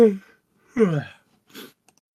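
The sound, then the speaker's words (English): A drawn-out yawn: a voiced groan sliding downward in pitch, then a short breathy exhale, with a brief vocal murmur just before it and quiet in between. “oh a yawn 10 minutes into the recording where this is a good sign you're fine i yawned like two minutes before we started”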